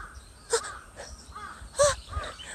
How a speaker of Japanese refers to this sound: 今回も外で鳥たちと一緒にここの公園がですあそう公園にいるんですけどこの公園がたまにカラスが鳴くんですよそうしたらちょっとハロウィンっぽくないかって思ってカラスと共演できたあああ